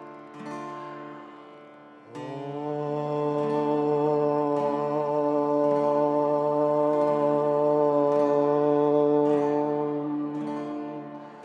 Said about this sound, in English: Now the, now the complete om sound.